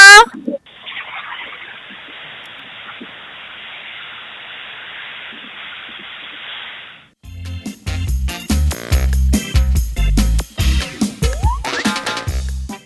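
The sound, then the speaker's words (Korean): A steady, fairly loud rush of flowing water from the Nakdong River continues on its own for about six seconds, then cuts off as upbeat music begins. “어, 자, 끝으로 저희가 낙동강 강물 소리 더 세게 들으면서 오늘 방송 마무리하도록 하겠습니다.”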